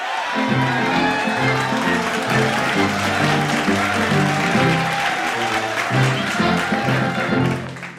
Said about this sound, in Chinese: 好，同学们，掌声鼓励，欢迎这组《仙杜瑞拉的秘密》。